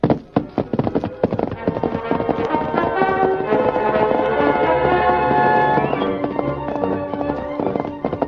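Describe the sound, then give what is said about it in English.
Rapid, rhythmic hoofbeats of the Lone Ranger's great horse Silver galloping in the darkness drum steadily throughout, mixed with loud, sweeping orchestral music that swells in the middle and eases near the end. “Leaving Tonto on guard, the Lone Ranger set out in the darkness on his great horse, Silver.”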